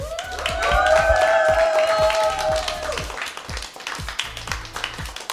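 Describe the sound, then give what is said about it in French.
An audience applauds a duo after their live performance on a show, with steady, dense clapping for about five seconds, joined early on by a sustained high-pitched cheer that holds for a few seconds before the clapping carries on alone. “duo qu'on peut applaudir bien fort.”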